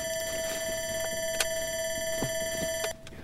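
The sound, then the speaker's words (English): A shrill electronic panic alarm from a locator, sounding from inside a bag after one of the locators hit its panic button, rings as one steady, unbroken tone, loud over rustling and handling noises, then cuts off abruptly just before the end. “One of the locators hit the panic button.”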